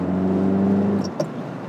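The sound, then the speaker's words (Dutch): An Alpine sports car engine, in a car of about 700–750 kg fitted with a roll cage, drones steadily with a low, layered hum for about a second while turning, then eases off as two brief sharp clicks sound; no one speaks. “Het is wel werken, een auto als dit hoor.”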